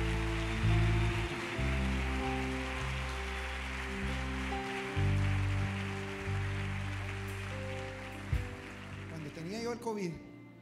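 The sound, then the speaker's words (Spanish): An audience claps for the Lord during a church service in a dense, steady wash of applause over sustained keyboard chords, continuing for about ten seconds before a voice briefly rises at the end. “Dale un mejor aplauso al Señor esta noche.”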